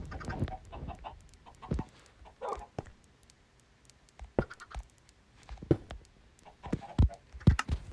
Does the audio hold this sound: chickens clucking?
yes